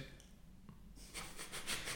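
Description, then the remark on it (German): A soft, drawn-out yawn: a quiet pause, then a breathy, airy exhale that swells and wavers over about a second, with no talking. “Ich habe nichts gesagt, ich habe nur gegähnt.”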